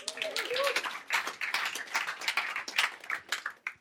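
An audience applauds the multimedia team: a dense, steady patter of many hands clapping for about four seconds, with a brief voiced sound near the start, then fading slightly at the end.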